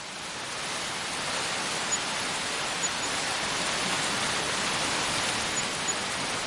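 Heavy rain from a strengthening storm pours down in a dense, steady roar that fades in at the start and then holds loud and constant, with a few faint ticks of drops striking a surface.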